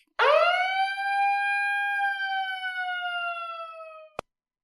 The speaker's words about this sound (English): So before we even get into the first main event topic, I need that siren from you right now.